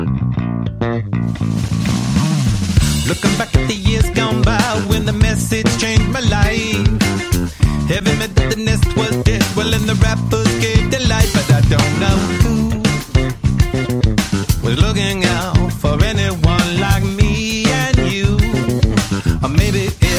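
A funk rock track opens on a punchy, prominent bass line, with guitar and drums playing along steadily and loudly throughout, no vocals.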